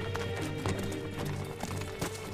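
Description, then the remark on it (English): Steady clip-clop of horse hooves on a hard surface as Prince Edward, held under house arrest in Hereford, rides out with his captors, a brisk repeating rhythm over a low rumbling background, with no voices. “So Edward plays a game with his captors, swapping horses to find the fastest.”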